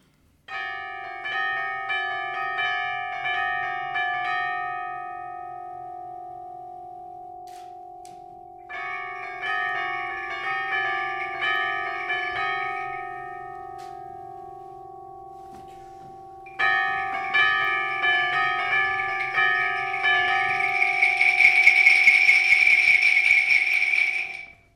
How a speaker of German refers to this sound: Das war jetzt gerade Markus Hechtes Stück Fenster zur See. Also nur ein Ausschnitt natürlich. Also man hört jetzt hier die 40 Klavisspieler der AG Neue Musik und man hört drei Schlagzeuge vom Landesmusikgymnasium Munterbauer.